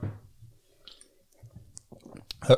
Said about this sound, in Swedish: Så om jag tar en sipp, om jag bara backar...